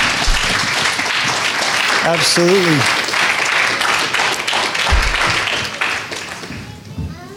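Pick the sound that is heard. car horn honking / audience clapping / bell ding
audience clapping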